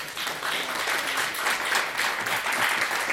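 Audience applause fills the whole stretch, a dense, steady wash of many hands clapping at once, fairly loud and even throughout with no voices standing out.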